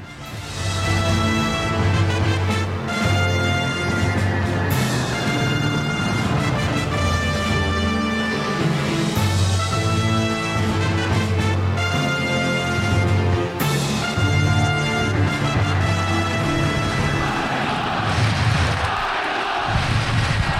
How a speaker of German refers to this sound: wie man im Opener hört, die Eintracht-Fans jubeln